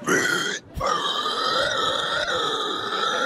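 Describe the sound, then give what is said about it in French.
A man who is a pig-squeal champion (Normandy champion, six-time French champion, ten-time world champion) loudly imitates a pig's squeal: a short shrill burst, a brief break, then one long, piercing, wavering squeal held to the end. “Le cri de cochon, c'est comme ça.”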